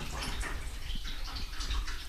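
Liquid sloshing gently back and forth in shallow photo developing trays rocked by hand, a soft continuous wash of splashes and ripples, steady with no voices.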